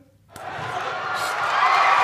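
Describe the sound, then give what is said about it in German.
After a brief moment of quiet, a burst of applause breaks out: dense, steady clapping that swells gradually and stays loud to the end. “Können wir dafür einmal ganz kurz hier Applaus bekommen, Leute?”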